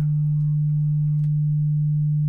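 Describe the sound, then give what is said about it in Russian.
A steady, unbroken, high-pitched pure test tone, played to test the upper limit of human hearing, holds at even loudness for about two seconds, with no voices and only faint background noise around it. “И экспериментально определил верхний порог слышимости звука.”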